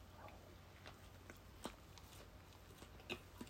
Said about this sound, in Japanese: あの、咀嚼音がしますので、えー、ご注意ください。いただきます。